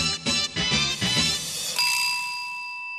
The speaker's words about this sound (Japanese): あ、なんか、あ、携帯鳴ってますよ。